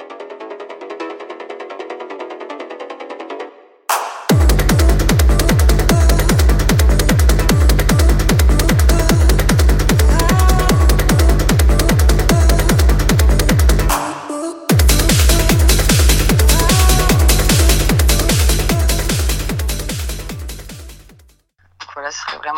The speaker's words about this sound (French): En fait, il arrive très bien en production à contraster le côté très dur avec ses kicks basses et le côté plus happy avec des mélodies et des voix plus typées rave années 90.